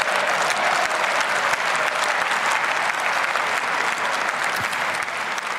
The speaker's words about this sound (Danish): Ja, øh, stående klapsalver til øh, den nye tyske forbundskansler Olaf Scholz, som vil bruge 2% af BNP på forsvaret allerede efter to år